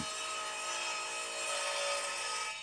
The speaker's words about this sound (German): Was das war? Ich denke, eine Kreissäge. Warum nicht? Der Mann hat Prinzipien, er hat sich bereits an die Arbeit gemacht.